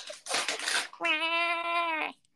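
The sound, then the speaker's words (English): A cat lets out one long, steady, drawn-out meow, loud, preceded by a brief breathy, rushing burst of noise. No one speaks. “The cat meowing was fantastic.”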